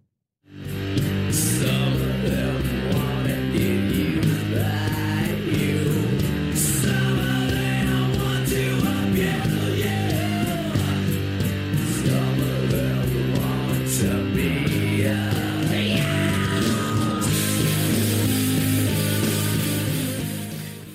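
A heavy rock cover of a pop song plays steadily and loudly for about twenty seconds, with thick distorted guitars, driving drums and a low sustained bass line, no talking over it.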